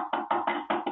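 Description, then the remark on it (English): A quick series of about six hollow knocks on a wall, evenly spaced, each one a dull resonant thud with no voices; someone is knocking across the wall to find a beam. “so Like can like you can be like this, yeah. and then the knock will change.”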